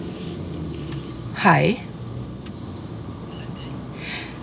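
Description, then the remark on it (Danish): Quiet interior of a parked car looking across at a car wash, with a steady low rumble and faint background hiss; a person briefly speaks a single word partway through. “Vi holder i en bil og kan se over på hans bilvask”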